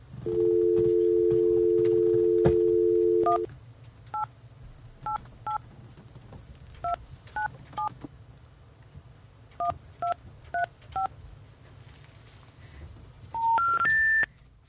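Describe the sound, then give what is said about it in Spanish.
A steady telephone dial tone hums for a few seconds, then about a dozen crisp keypad beeps are punched in short irregular bursts, ending with three rising electronic tones over a faint background hum, as the number dialed is no longer in service. “The number you are trying to reach is no longer in service.”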